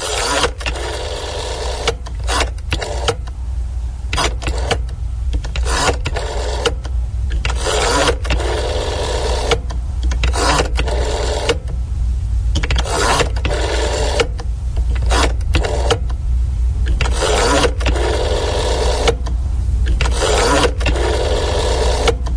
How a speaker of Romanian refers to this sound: sunet care reprezintă formarea unui număr de telefon al unei instituții